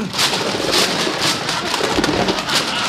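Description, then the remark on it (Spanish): Steady, hissing rain fills the scene at a constant level over a moving train in Spain, with a couple of low rumbles of thunder rolling underneath, no one speaking. “Con el tren en marcha se encaraman al techo y de repente se oye un trueno.”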